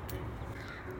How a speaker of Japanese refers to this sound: ではね今日の感染トーク背景のバックミュージックっていうかねあのバックコーラスはカラスの声でそのまま録音をしていきたいと思いますはい